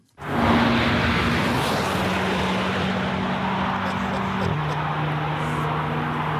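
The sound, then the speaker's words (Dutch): A 1.9-litre four-cylinder sports car engine, code M139, making up to 421 hp, roars loud and steady as the car passes at high speed, with a rushing, wind-like hiss and the engine tone stepping down in pitch as it shifts gear. “ja haalt een vermogen van maximaal 421 pk uit een viercilinder.”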